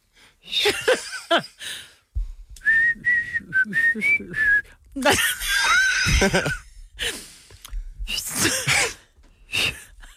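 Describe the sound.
Someone whistles a short pop tune, a string of bright notes stepping up and down for a couple of seconds, surrounded by bursts of breathy laughter and noisy exhalations.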